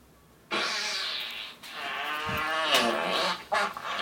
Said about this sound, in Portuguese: Peido diarreia.